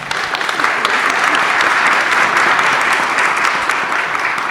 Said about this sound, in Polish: Doktor Alicja Długołęcka. Wielkie brawa!